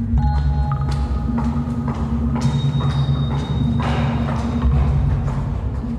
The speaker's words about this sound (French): J'ai entendu des pas, mais pas du tout euh, le temps de réaliser, de me tourner.